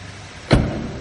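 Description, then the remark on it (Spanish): A car door shuts with a single solid thump as a chauffeur gets into the car, followed by a low, muffled interior rumble. Nobody speaks. “El chofer también sube.”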